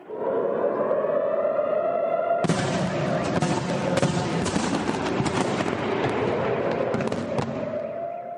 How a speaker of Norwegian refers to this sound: Eksplosjonene er ikke raketter som treffer bakken, det er lyden av stridshodene i antirakettene som detonerer og ødelegger en rakett fra Gaza.